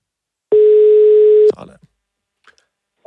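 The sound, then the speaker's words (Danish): A single steady electronic ringback tone of an outgoing phone call sounds for about a second, loud, then cuts off, followed by faint rustling and the start of a voice. “Jeg synes, vi skal ringe til ham. Lad os ringe til ham.”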